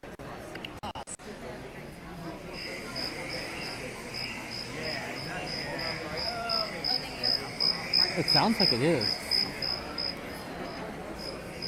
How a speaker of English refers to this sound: Hollywood Hills Crickets.